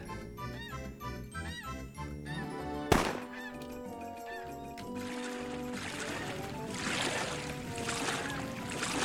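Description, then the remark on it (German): A waltz tune from a rowing computer game plays steadily and fairly loud, with bright horn-like melody notes and a tinkling accompaniment, punctuated by one sharp percussive hit early on, and no voices. “Jetzt haben wir nämlich auch eine schöne Walzer.”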